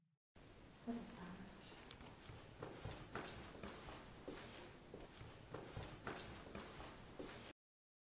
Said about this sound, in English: And we got up to that hallway and we stopped for a second to see if we could hear anything. And then, as soon as we start moving back towards where the room is, I swear we caught running footsteps on our night vision camera.